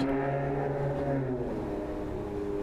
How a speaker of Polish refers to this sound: Motor przejeżdża.